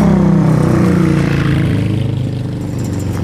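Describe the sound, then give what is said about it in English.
A loud motorcycle engine rumbles at 7:35 a.m. on Wednesday, September 6, 2023, its deep throbbing tone holding steady, then easing lower and slightly fainter as it moves past. No one speaks. “Motorcycle, in case you couldn't tell.”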